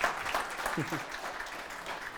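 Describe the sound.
A crowd claps in a steady, dense patter of applause, with a brief voice rising faintly through the clapping.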